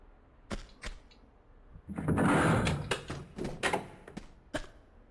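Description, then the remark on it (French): A door in an Xbox video game slides open with a mechanical whoosh during its opening animation, framed by sharp clunks and clicks before and after, heard alone at moderate volume without any voices. “Genre, je cours déjà, j'avais déjà entamé mon saut, alors que l'animation de la porte, elle était même pas terminée.”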